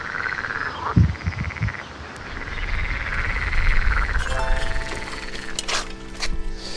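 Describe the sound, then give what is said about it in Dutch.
A dense chorus of frogs croaking continuously in the middle of a city, many overlapping calls forming a steady rasping din, with a few sharper clicks and bird-like chirps near the end. “Kikkergekwaak”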